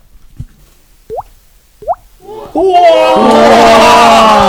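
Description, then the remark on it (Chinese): A person imitates a whale blowing bubbles by flicking a spot on the face, making three hollow, upward-sliding plops, evenly spaced and fairly soft, before a burst of loud, excited voices and reaction takes over. “呃，就是我可以学一下那个鱼吹泡泡的声音。”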